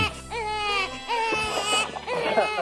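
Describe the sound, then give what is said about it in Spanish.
An infant cries in loud, wailing bursts, its high, strained voice rising and breaking between short gasps, with a low steady hum underneath. “Llore, llore el niño.”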